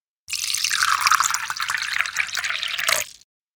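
Tea is poured into a cup in one steady stream lasting about three seconds, the splashing tone rising slightly as the cup fills. No voices accompany it.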